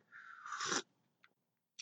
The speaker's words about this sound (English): I'm sipping on some hot cider.